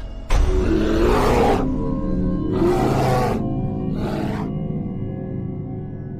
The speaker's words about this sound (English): it's a grizzly. Should we get out of here? No. We're gonna watch and listen.